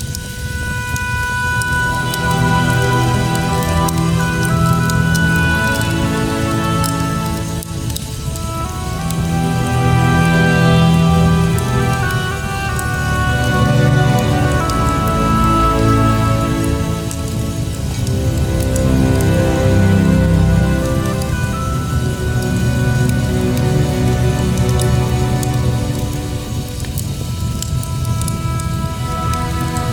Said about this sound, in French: je vais vous quitter en vous mettant un, un, extrait de The Witcher Feu de cheminée.